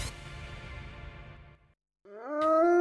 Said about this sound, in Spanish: Ese aullido insistente.